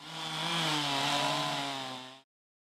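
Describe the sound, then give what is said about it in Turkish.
A chainsaw runs steadily for about two seconds as municipal crews cut a fallen tree into pieces. Its buzzing engine drone holds a fairly even pitch before cutting off abruptly. No voices are heard. “Devrilen ağaç belediye ekipleri tarafından parçalara ayrılarak taşındı.”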